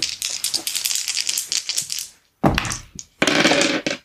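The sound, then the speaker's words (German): Three six-sided dice rattle and clatter in a long tumbling roll, rolled for starting gold coins in a tabletop role-playing game, then after a short silence come two more quick bursts of rolling clicks. No one speaks. “Dann würfelt doch mal.”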